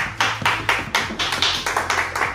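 Clapping in a quick, even rhythm for someone's first lecture: roughly ten crisp, fairly loud claps in a row, with a faint low hum underneath and no voices.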